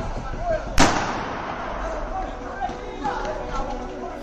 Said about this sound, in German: Wir hören Schüsse, wir sehen, wie ein junger Mann mit einem weißen Hemd um die Ecke rennt und wir hören aufgeregte Schreie, also ein ganz typischer Schlagabtausch, wie er des Öfteren am Wochenende zwischen diesen Latino-Jugendbanden stattfindet.